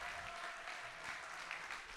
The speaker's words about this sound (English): Come on, stay standing. Come on, please, just clap for them. A little longer. Thank you.